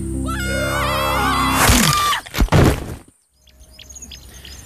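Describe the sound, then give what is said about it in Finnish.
Warbling, bird-like whistled calls rise and fall for about two seconds, followed by a loud rushing burst, then faint scattered chirps in a quieter background. “Ja se oli myös kiinnostavaa, että he opettelivat kommunikoimaan niin kuin matkimalla lintuja.”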